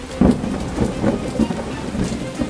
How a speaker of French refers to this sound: la pluie se remet à tomber.